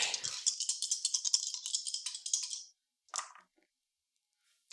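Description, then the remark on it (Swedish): A large fistful of many dice rattles rapidly for a couple of seconds, followed by a short clatter as they tumble and settle, then quiet with a faint click at the end. Fairly bright. “Oh shit, det är så många tärningar jag har.”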